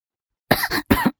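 Two harsh, breathy coughs in quick succession after a stretch of silence, the first slightly longer, both fairly loud with no speech around them.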